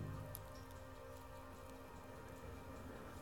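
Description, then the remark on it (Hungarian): Light rain patters steadily on a surface, a soft continuous wash of fine drops with occasional brighter ticks, fairly quiet and even throughout with no voices. “Az eső immár gyengécske kopogása mögül, távolról, kürcó, meg néhány száz lópata dobogása érkezett a helytartó füléhez.”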